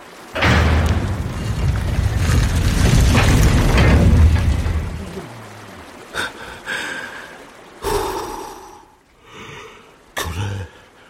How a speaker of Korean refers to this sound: 이 문이 열리면 차례대로 걸어 들어가서 마론의 심판을 받으세요. 마론의 축복이 있기를. 마론의 축복이 있기를. 자, 청동문을 열겠습니다.